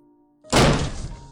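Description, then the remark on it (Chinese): After a moment of low hum, a door is kicked open with one sudden, heavy bang, loud and full, followed by a rattling, slowly fading decay. No one speaks. “先是一声男子的尖叫声，然后是门被踹开的声音。”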